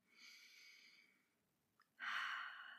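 Two breath sounds with a brief pause between: a soft, airy breath drawn in through the nose, then a louder, fuller exhale pushed out through the mouth during a stretching exercise, with no talking.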